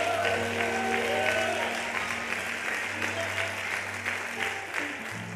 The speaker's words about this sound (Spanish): Aplauda si quiere haga algo.